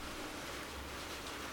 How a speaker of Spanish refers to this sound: Voy a, voy a a, subir un poquito el volumen de la voz porque la lluvia espero que no se escuche tanto en el audio.